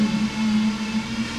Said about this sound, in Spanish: Ahí de fondo, ahí de fondo tenemos una licuadora industrial.